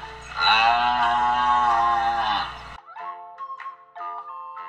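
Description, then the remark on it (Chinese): A hungry cow lets out one long, loud moo lasting a couple of seconds, rich and droning, then it stops abruptly and a person begins speaking. “母牛肚子饿得咕噜咕噜叫，它转身离开去吃草。”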